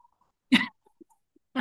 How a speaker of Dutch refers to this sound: En mijn hondje beaamt dat. Ja, ik hoorde het.